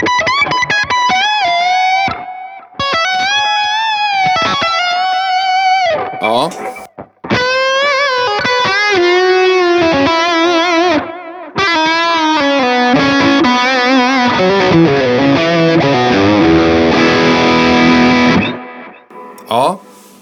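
An electric guitar plays a melodic lick with sustained, wavering notes and reverb. Delay repeats trail each phrase with a gentle warble of modulation on the repeats, building into a dense, effected wash before cutting off.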